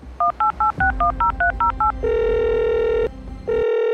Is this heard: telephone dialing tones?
yes